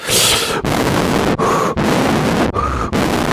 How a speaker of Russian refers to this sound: Вот такое сопение. Потому что … тяжело держать телефон долго.